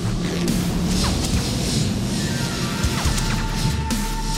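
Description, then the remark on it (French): Booming cannon blasts from a war chief's fleet of spaceships firing on the ship Fenrir as it dives toward Nemesos, with explosions crashing in a dense, continuous barrage, deep rumbling low end, bursts of bright crackle and a few thin tonal whines threading through. “Bordel, il nous tire dessus”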